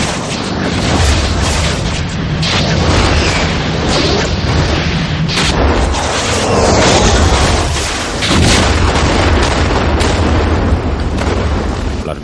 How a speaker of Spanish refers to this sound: bombas de napal extienden sus lenguas de fuego pisándole los talones.